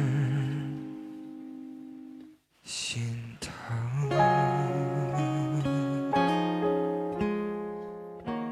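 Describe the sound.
A slow pop ballad is sung with long, held melodic notes. After a brief break partway through, the singing returns over fuller, steady accompaniment at moderate loudness.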